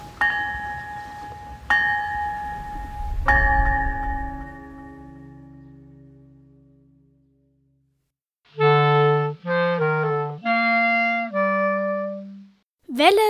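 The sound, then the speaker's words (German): A cast iron bell is struck three times in quick succession, its loud, slightly harsh tone ringing out and slowly fading, followed after a brief silence by a short melodic jingle. “Also man hat versuchsweise mal die eisernen Glocken hier gegossen, aber der Klang ist kein schöner im Vergleich zu den heutigen Bronze- und Stahlglocken.”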